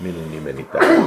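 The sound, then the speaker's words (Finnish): A man speaks, pauses briefly, then lets out a single loud, abrupt sneeze that ends the short clip. “Terveydeksi.”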